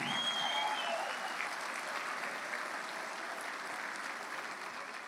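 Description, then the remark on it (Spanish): Sustained applause from an audience at a product sales meeting, a dense steady clatter of many hands clapping at once, fairly loud and even throughout with no voices standing out. “Y el que no aplaude es porque no, tiene conciencia.”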